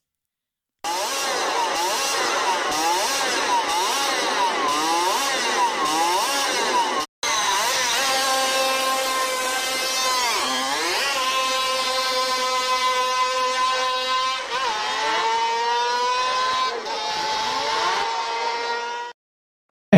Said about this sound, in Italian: Vabbè, vi dico subito che è una moto e prima vi faccio sentire un pezzetto in cui viene scaldata da fermo nel box e poi questa moto parte.